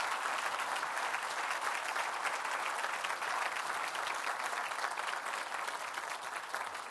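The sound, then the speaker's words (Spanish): An audience gives the Lord a strong round of applause, clapping steadily for several seconds, a dense, continuous wash of many hands clapping at an even, fairly loud level with no voices standing out. “Hermano, por favor, dele un fuerte aplauso al Señor.”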